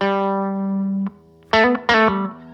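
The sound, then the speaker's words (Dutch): An electric guitar through an overdriven tube amp, its gain or volume turned up toward 10: a sustained crunchy chord rings for about a second, then two sharp strummed hits follow, gritty and dense with harmonics, with no talking. “Ja, gaat hij een beetje oversturen. Zij kan van heel clean naar beetje crunchy.”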